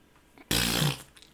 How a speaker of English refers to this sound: That's the, the and then he farts.